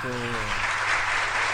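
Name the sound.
canned applause sound effect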